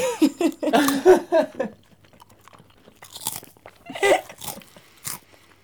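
Laughter first, then a few loud, crisp crunches as something crunchy is bitten and chewed, each crunch separated by short pauses.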